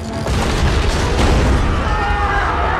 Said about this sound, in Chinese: 沙旦这次不小心用闪电爆了辆公交车的胎，公交车即将出下高架桥，终于轮到咱们的超级英雄沙旦大显身手了。